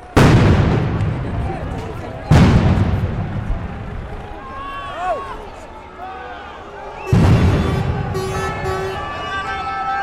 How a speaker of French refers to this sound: grenade à effet combiné lacrymogène et sonore. Effet lacrymogène par 10 grammes de CS. Fumée blanche. Effet sonore de 160 dB à 5 mètres par une charge de 7 grammes sans TNT.